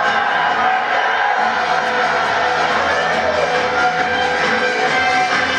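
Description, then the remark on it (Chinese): A large audience applauds and cheers loudly and steadily for an on-stage speaker, who says their applause and cheering will decide the size of his discount. A dense, continuous roar of clapping, shouts and whoops holds at full strength for the whole stretch, with no single voice standing out. “所以接下来你们的掌声和欢呼声决定我优惠的大小。”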